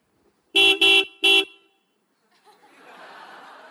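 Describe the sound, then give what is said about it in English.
A car horn honks three times in quick, insistent succession, a middle-level, slightly agitated honk, loud, then gives way to a softer, diffuse rush of background noise. “The middle level one is you a little bit agitated.”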